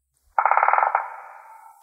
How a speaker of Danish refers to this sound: Nej, det er naturtelefonen. Det er længe siden. Det er godt nok længe siden. Øh, hvor fanden har vi sat den?